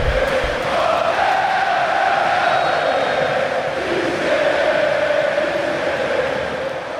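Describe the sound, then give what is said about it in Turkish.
A large crowd of Flamengo fans at the Maracanã stadium chants "Mister" in unison to honour coach Jesus, a loud, sustained roar of many voices holding a steady sung tone for the full length, with no individual speech standing out. “40 milyon aşan taraftar kitlesiyle ülkenin en tutkulu kulübündeki baskıyı başarıya çeviren Jesus, Flamengolular tarafından Maracana'da Mister tezahüratlarıyla onurlandırıldı.”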